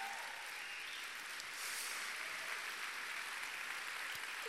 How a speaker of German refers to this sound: Deswegen könnt ihr mal euren Leitern, die das heute möglich gemacht haben, einen riesen Applaus geben. Die Mitarbeiter, die diese Conference organisieren.